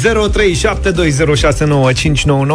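A short, bright Europa FM radio contest jingle with sung, melodic vocals over a full, continuous backing, loud, lasting just a couple of seconds.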